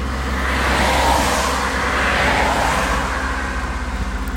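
A car passes on a roadside by a harbor on a gray, chilly day, its broad engine and tire rumble swelling and fading against steady low traffic hum, with no voices present.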